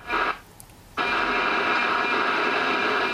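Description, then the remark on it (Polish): A faint radiosonde signal breaks up and is swallowed by loud, steady radio static, with a short drop to near quiet before the dense hiss returns and holds to the end. “O, zaginęła nam w szumach”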